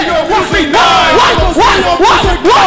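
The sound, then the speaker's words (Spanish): A loud crowd cheers and claps at night for a group of comedians being introduced on stage, with rising whoops and yells repeating every second or so over a steady wash of applause and a few deep thumps. “¡Un aplauso para ellos!”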